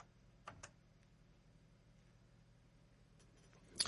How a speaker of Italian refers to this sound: È caduta la linea con, eh,